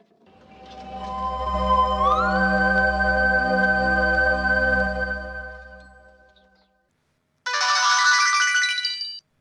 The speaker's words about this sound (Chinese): 特殊的和弦声音提醒我，这是高然发来的短信。